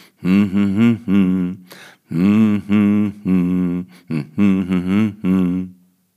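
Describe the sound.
A single voice hums the refrain of a Christmas song in clear sustained melodic phrases with short breaths between them, unaccompanied and fairly loud.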